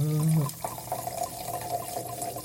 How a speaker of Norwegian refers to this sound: Skal jeg helle over i glasset til ditt her?